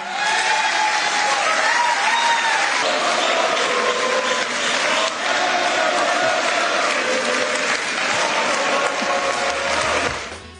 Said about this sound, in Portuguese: deu a entender que estaria aberta a indicação e a fala foi fortemente ovacionada.